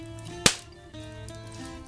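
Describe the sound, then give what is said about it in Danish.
A single sharp, loud slap cracks out near the start, a hard hit to the face, over a steady bed of music that keeps playing afterward. “så ser I Rosk at give lige om en ordentlig lussing. Jeg ser lige smæk herinde.”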